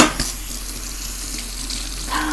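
tap water running

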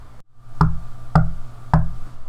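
knocking on a door

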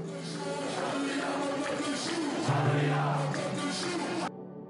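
protest crowd chanting

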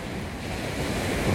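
ocean waves breaking

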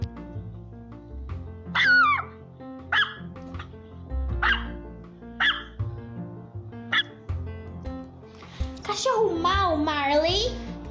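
dog barking

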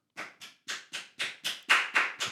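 single person clapping hands

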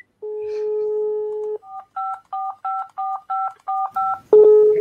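telephone keypad dialing tones

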